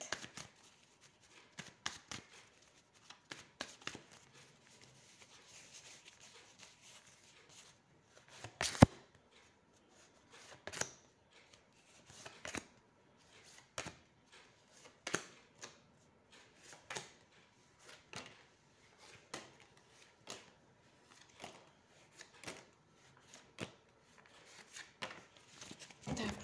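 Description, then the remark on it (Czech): Tarot cards being shuffled for a reading: quiet, papery riffles and soft slaps repeating in uneven bursts for nearly half a minute, with no voices over them. “Já už se dívám na vaši fotku, míchám u toho karty a mrknem teda na to.”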